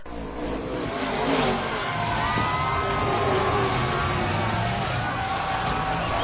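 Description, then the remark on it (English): Race car engines at a car race roar steadily, with whining tones that rise and fall in pitch as the cars rev and pass, over a constant wash of rumbling noise. No one speaks. “Larry 和李华今天去看赛车”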